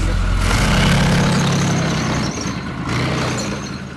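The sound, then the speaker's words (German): The engine of a German mountain infantry (Gebirgsjäger) vehicle rumbles loudly as it drives over snow and ice in northern Norway in late March 2022, at about 70 km/h northward from Narvik to Bardufoss. A deep, steady drone with hissing noise on top briefly eases midway before surging back. No one speaks. “Schnee und Eis machen diesem Fahrzeug der deutschen Gebirgsjäger nichts aus.”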